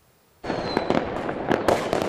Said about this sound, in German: Endlich wieder ein richtiges Silvesterfeuerwerk. Nach zwei Jahren Böllerverbot ging so einiges in die Luft. Ob in Mayen in der Eifel, vor dem Dom in Speyer oder am deutschen Eck in Koblenz.